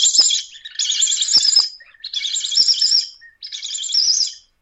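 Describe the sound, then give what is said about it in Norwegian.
A Predator Call 3 predator call whistle blown in four loud bursts of shrill, raspy squealing, the air pushed into it in jerky puffs, imitating the distressed cries of an injured small bird or thrush, with short pauses between each burst. “Ja, eh, og det, det skal, Den Predator Col 3 det skal jo imitere en skada småfugl eller en skada trostefugl.”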